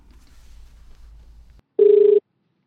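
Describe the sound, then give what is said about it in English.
A single short burst of a steady electronic ringing tone from an outgoing phone call being placed, following a stretch of low background rumble and then cutting off into silence. “And now he's asking me to make a phone call.”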